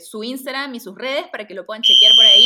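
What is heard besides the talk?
building fire alarm ringing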